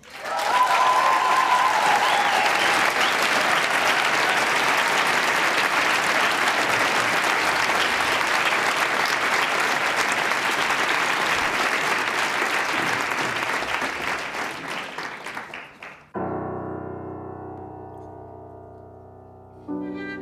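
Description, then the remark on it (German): A large evening audience applauds loudly for about fifteen seconds for a violinist, a dense wash of clapping with a few cheers near the start, then it fades and gives way to sustained musical tones. “Ein riesiger Applaus,”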